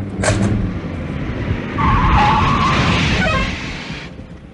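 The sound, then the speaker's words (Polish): A car engine rumbles as the car approaches, returning from a test drive, then tires squeal briefly as it brakes hard and comes to a halt, the noise cutting off near the end. No one speaks. “Kończę, kończę, bo słyszę jak wracają.”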